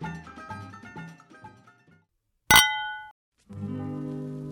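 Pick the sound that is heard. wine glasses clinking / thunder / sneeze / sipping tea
wine glasses clinking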